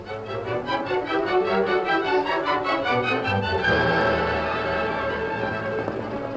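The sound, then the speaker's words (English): Rhythmic hoofbeats of horses trotting steadily for a few seconds, then the beat breaks off as they come to a halt outside a cave, leaving a busier, murky background. “The two boys walking into the interior did not hear the horses stop outside, nor did they hear the two men dismount and enter the cave.”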